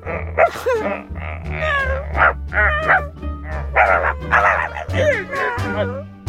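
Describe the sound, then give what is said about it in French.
A person hiding behind curtains imitates a dog, letting out a rapid string of high, yappy barks and whiny yelps that rise and fall in pitch, repeating loudly over a steady low hum. “faire des cris d'animaux en se cachant derrière les rideaux.”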